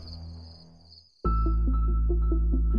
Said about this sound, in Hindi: अनुमान ये था कि वो हाई पिच्ड आवाजें जो हवाना सिंड्रोम के पेशेंट्स को सुनाई देती थी वो एक तरह के झींगुर की यानी क्रिकेट्स की आवाज थी